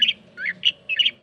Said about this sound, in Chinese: 这是白头翁的叫声，那基本上这个是属于比较悦耳型的那个鸟叫声哈。